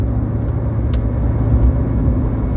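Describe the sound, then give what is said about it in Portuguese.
Steady, loud car interior rumble from an engine and tires on the road at a speed of 120, the car shaking all over; a continuous low drone with a brief rattle near the start and no talking. “120 agora. Nem é tão rápido, mas o carro tá se tremendo todo.”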